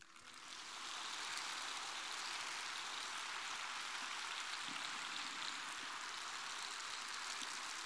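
Sustained, long audience applause for a speaker's talk, a dense, even wash of clapping that swells up in the first second and then holds steady and loud throughout, with no voices over it.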